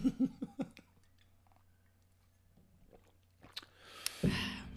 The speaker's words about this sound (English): You taking a gulp of wine? Yes.